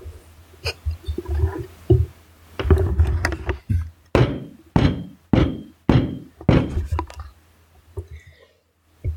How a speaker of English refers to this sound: I was gonna put my microphone under the table, then like start thumping it. Okay, I might actually just try that.